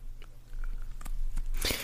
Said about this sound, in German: Ähm, ich knusper währenddessen noch mal kurz hier so ein Spekulat, ne? Knusper, knusper, Knäuschen.